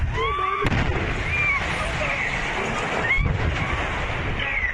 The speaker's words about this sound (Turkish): Meksika'da bir akaryakıt istasyonundaki sızıntı sonucu patlama yaşandı. Patlama ile birlikte çevredekiler ölümle burun buruna geldi. Akaryakıt istasyonunda sızan gaz patladı. Çevredekiler dehşeti yaşadı.